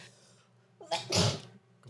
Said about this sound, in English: Bless you. That was a bad sneeze. No, oh, it wasn't. It was plenty good.